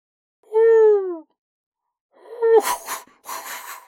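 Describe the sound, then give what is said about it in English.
A voice imitates an owl flying off from a tree: a falling hoot, then a few breathy, whooshing puffs that mimic its wing flaps. Fairly loud, with no other talk. “flies away. That was the sound of the wings.”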